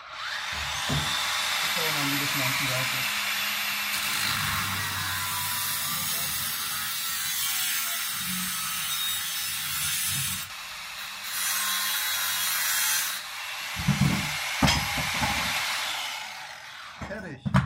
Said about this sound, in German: Ich muss mal noch die andere Seite flexen. Ah ja. Das ist ja ein relativ dicker Stahlrahmen hier. Mhm. Ähm, also das Außenrohr zumindest.